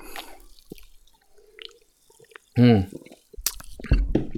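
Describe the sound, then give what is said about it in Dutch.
Quiet slurps and small liquid drips from someone taking a sip of cola, followed by a satisfied hum and a breathy exhale. “Nice, laten we eens een slok nemen.”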